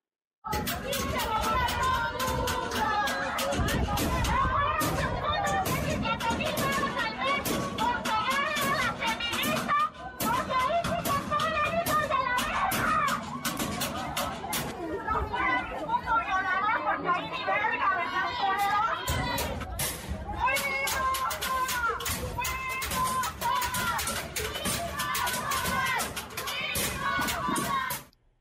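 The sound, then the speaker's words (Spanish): A loud crowd of feminist protesters shouts and chants continuously, many overlapping voices raised together, punctuated by sharp clanging knocks as they strike with a pole and hammers at the black metal fences guarding the National Palace in the Zócalo. “un grupo de feministas se remitió contra las vallas negras que desde hace varios días resguardan Palacio Nacional”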